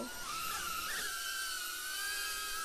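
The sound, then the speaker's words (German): The small motors of an FPV drone flying indoors inside a house give a high, steady whine with a slowly shifting pitch, spinning up and holding, continuously with a broad hiss; no one speaks. “Okay, ihr hört jetzt gleich vielleicht noch die Drohne im Hintergrund, aber das darf euch nicht stören.”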